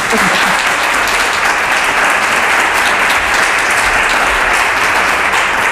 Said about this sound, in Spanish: Podéis aplaudirles si queréis, ¿eh?